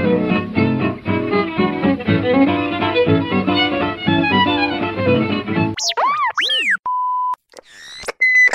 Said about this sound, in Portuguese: Manda aí, sobe a trilha aí